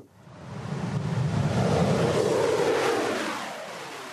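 The engine of a Russian MiG-35 fighter jet roars steadily, a broad, loud rumbling whoosh that swells over the first second and holds, with a deep low-end growl and a hissing upper wash.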